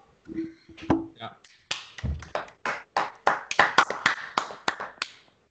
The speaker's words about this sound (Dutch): Even voor de zorg klappen.